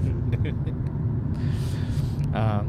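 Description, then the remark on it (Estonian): A steady, low engine rumble drones inside a moving car for the whole stretch, loud and constant, with a faint voice briefly rising over it near the end. “see auto tegelikult, sellel autol on väga huvitav ajalugu”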